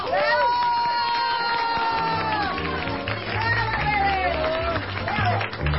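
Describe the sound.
A studio audience at a W Radio show in Mexico claps and cheers steadily for several seconds, with whoops and shouting voices rising over a dense wash of applause and a low rumbling undertone.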